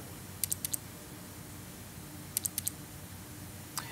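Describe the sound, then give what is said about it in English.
Crisp keyboard key clicks from the animated Keyboard character, a helper for a Circuit Python powered keyboard, come in quick bursts of four, like doubled double-clicks, twice in succession, then a single click near the end, over a quiet background hum with no talking. “And uh, I demanded the double click.”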